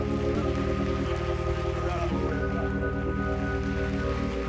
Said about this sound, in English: Would you put your hands together as the man of God comes?